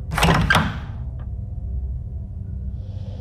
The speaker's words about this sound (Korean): 난 혼자 욕실로 가서 기세 좋게 문을 열어 제꼈다.